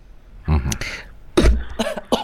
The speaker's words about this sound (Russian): Ой, прошу прощения. Ну, так меня э... разбирает, что я аж даже поперхнулась, прости господи.